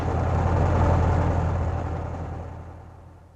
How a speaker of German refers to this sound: So jedenfalls versichert der Prospekt der General Motors, die den Omnibus hergestellt hatte. Doch nicht nur der Motor des Omnibuses lief auf Hochtouren